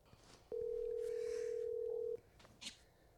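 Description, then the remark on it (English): A telephone call being placed to a guest: one steady, mid-pitched electronic tone rings out loudly for about a second and a half, then cuts off, leaving faint background noise and a brief soft rustle. “We're calling her right now.”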